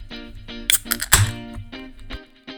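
An unfiltered lager, The Meadow from Fort George Brewery, being opened and poured: a few sharp clinks and a bright burst of fizz near the middle, over steady, soft background music.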